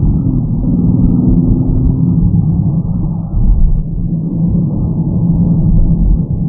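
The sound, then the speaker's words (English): A World Rally car's engine drones loudly and continuously with heavy low road rumble, as if heard from inside the fast-moving car; a brief surge in the noise midway, with no talking. “I've my World Rally car here.”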